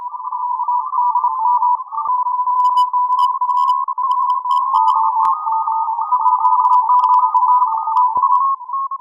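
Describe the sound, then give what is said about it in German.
A steady, loud electronic tone of Morse code fills the whole stretch, with overlapping keyed beeps pulsing in quick irregular rhythms from several amateur radio operators' signals on the shortwave band. No voices. “Sie sind die letzten Nutzer der Kurzwelle, die noch regelmäßig morsen.”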